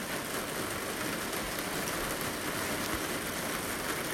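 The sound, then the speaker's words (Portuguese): A steady, even hiss of rain falling without pause, a dense wash of sound with a faint low rumble beneath it and no voices. “Conecte-se com a sua respiração e o barulho da chuva.”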